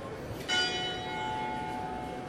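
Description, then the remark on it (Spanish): A single strike of a church bell, from a church across from the speaker, rings out, its bright metallic tone lingering and slowly fading over a steady background hum, with no voices present. “Bueno, suena la campana de la iglesia que tengo enfrente.”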